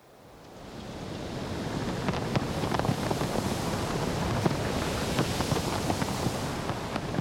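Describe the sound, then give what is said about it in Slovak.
A steady seaside wind rushes past the microphone in a broad, continuous roar, swelling over the first second and then holding, with faint surf underneath and scattered small crackles. “Čo viedlo morský Vánok k tomu, aby zvýšil hlas na slnečník?”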